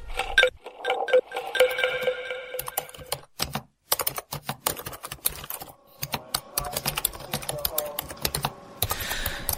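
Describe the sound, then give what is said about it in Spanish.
Rapid, uneven keystrokes clatter on a computer keyboard as statements and a report are typed up, a steady run of sharp clicks with brief pauses, mixed with some background tones and murmuring voices. “No sabe cómo me duelen los dedos por este teclado de mierda”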